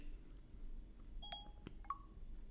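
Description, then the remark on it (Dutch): The Siri voice assistant on a smartphone opening an app made for blind and visually impaired users, heard as a few short, clean electronic tones and beeps spaced over a couple of seconds against a quiet low hum, with no one speaking. “Ik open nu via Siri de app, zoals je net hoorde.”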